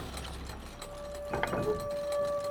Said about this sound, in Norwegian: Dette lyder ikke godt. Det hørtes ikke bra ut. Så hører dere sånn sånn uh, lyd fra Ja, modemlyd bare komme utover høyttalerne.